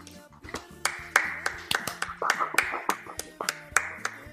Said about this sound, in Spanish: Aplausos.